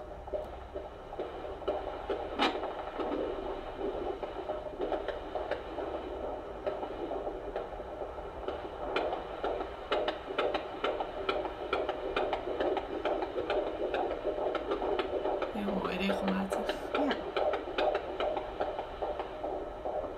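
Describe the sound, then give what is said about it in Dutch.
A steady, rapid heartbeat pulses through a continuous whooshing hum, picked up by an ultrasound monitor during a pregnancy scan, with no voices, holding an even level for the whole stretch. “Ook bewegingen, ook jouw hartslag nog.”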